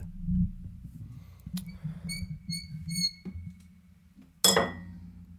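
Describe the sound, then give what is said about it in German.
Glasses clink together in a toast: a quick series of about four bright, high ringing chimes, followed by a louder, sharper clash, over a low murmuring background. “Santé, mec.”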